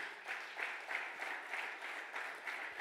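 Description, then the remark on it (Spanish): An audience at a Spanish-language church service applauding loudly at the call for another loud round of applause for "papá", a steady wash of many hands clapping with slight rhythmic swells throughout, no voices standing out above it. “Dale otro aplauso fuerte a papá.”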